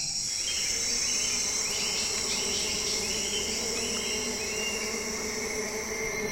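A dense outdoor chorus of stridulating insects, like crickets, buzzing and chirping steadily at an even level throughout, with layered high trills and faint repeated pulses over a low hum.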